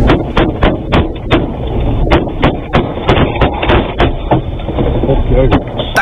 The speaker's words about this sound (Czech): takhle to zní, když sedíte v autě a někdo po vás zvenku střílí. Nedej bože, aby se to někomu z vás stalo. Pojďme si to radši jenom poslechnout zvukově.